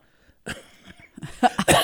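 A guest coughs several times, with harsh, breathy bursts that grow louder toward the end, clearing the throat between them.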